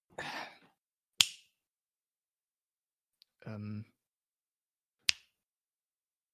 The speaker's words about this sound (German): Ja, eigentlich, also wenn ich schnipse, solltest du eigentlich in, in Trance gehen, ne? Also hier so und dann. Das scheint da irgendwie nicht so zu funktionieren.